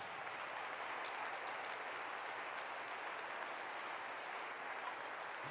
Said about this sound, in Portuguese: Se você é povo de Deus, eu queria que você desse o melhor aplauso para o Senhor nessa noite.